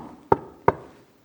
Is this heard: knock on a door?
yes